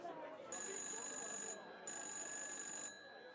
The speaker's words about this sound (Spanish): el teléfono suena de nuevo.